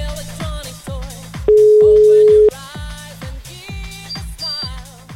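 A loud, steady telephone call tone, heard while phoning a voicemail, holds for about a second in the middle, cutting through busy, rhythmic background music with regular beats and no talking.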